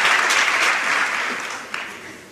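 A crowd in Jaén applauds a recited tribute to the Nazareno, a dense wash of many hands clapping at once that gradually thins and softens, with a single sharper clap standing out near the end.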